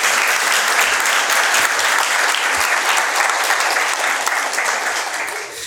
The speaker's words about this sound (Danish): Og det er jo lige præcis det, man må ikke klappe endnu. Og det, og I må gerne klappe, hvis I gerne vil give ham en klap. Kom med den.